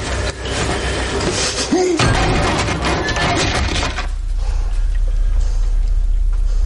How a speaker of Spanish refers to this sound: Se acercan a una puerta. Owen trata de abrirla, pero el jefe le aparta. Tras comprobar que está cerrada, la derriban de una fuerte patada.